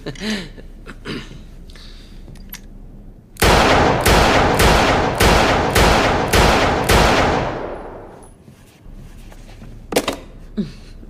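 A rapid burst of about eight loud, sharp gunshots fired at a target and missing, in steady succession, their echoes ringing out and fading for a moment afterward. Faint voices and small sounds come before and after the volley.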